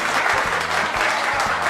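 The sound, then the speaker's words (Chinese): An audience applauds steadily in celebration of the successful launch of the Shenzhou-11 crewed spacecraft, a dense, continuous patter of many hands clapping at an even, fairly loud level throughout, with no voices standing out. “那就在今天的早上，神舟十一号载人飞船搭载着两名航天员景海鹏、陈冬，由长征二号 F 运载火箭成功发射送入预定轨道啊，飞行乘组状态良好，发射取得圆满成功啊，鼓掌鼓掌啊！”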